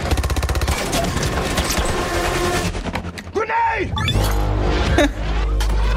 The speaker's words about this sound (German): Ja, okay, diese ganzen Explosionen, die sind natürlich. Das sieht schon echt.